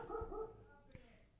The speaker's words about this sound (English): oh, woo, woo, woo. That's what you sound like, Hugo. um, he's going to bark again, so don't be surprised if you hear that in the background.